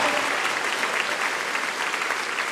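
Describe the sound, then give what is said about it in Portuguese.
A crowd claps steadily and loudly for a few seconds, applauding the Lord, a dense, continuous wash of many hands applauding together with no talk over it. “Pode aplaudir o Senhor, porque vai ser usada.”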